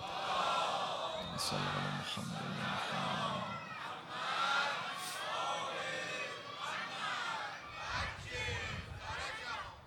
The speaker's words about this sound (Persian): امشب هم مثل همه جلساتمون هدیه کنیم به پیشگاه متحره حضرت صدیقه سلام الله علیها با حضور قلب و با توجه اما بلند سلوات بفرستیم